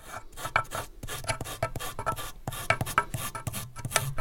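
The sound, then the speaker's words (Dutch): Steady rasping strokes of sanding the worn, flattened felt of a piano hammer, a rapid back-and-forth scraping rhythm repeating for several seconds with no voices. “Bijschuren van het? Van de hamer is dit.”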